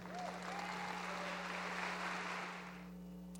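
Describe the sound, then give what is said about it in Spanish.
A church audience claps steadily together for the Lord during a sermon, a dense, sustained wash of applause, with a low steady hum underneath and a few faint whistles or cheers rising over it. “Dale un fuerte aplauso al Señor.”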